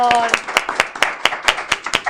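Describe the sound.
An audience claps in steady unison, sharp rhythmic beats about four per second, with a brief voice at the start over the first few claps.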